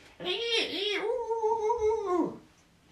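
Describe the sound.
A voice imitates a monkey, speaking monkey language to a monkey, with one drawn-out, wavering cry lasting about two seconds. Its pitch swoops up and down before trailing off, loud and alone, more a whining call than rapid chatter.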